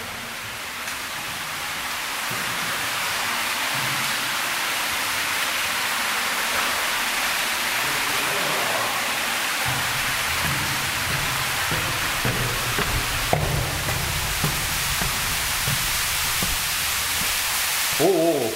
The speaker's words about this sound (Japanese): これすごいな、えー、段差 50m の滝が滝が鍾乳洞の中に滝がありますねえー、他に見ることはできませんね最高の落差高さ水量ともに他に見ることはできませんとありますね